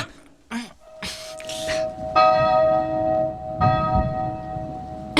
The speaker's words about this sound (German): Ja. Wir läuten die Glocken. Los, packt mit an. Helft mir!